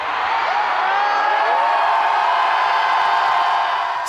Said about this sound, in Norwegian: Slik var hovedstadens klimabrøl i dag.